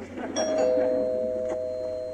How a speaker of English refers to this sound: The doorbell rings.